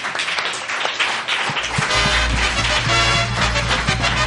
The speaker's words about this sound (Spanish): Eh, muy bien, un aplauso